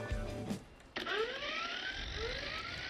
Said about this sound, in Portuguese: Estamos a falar de uma coisa que Parece à primeira vista um despertador normal, com um mostrador digital e tudo, só que tem em cima uma hélice. E à hora marcada, o que acontece é isto.